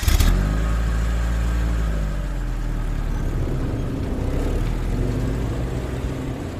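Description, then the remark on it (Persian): A car engine starts loud with a sharp rev, then settles into a steady, low rumble as the vehicle pulls away, continuous with no voices. “دوممونو رو گذاشتیم رو کولمون سوار ماشین شدیم و رفتیم”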